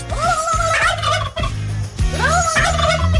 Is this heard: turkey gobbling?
yes